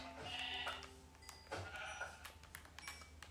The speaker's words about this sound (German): Ja, zwei Schafe, okay, das reicht.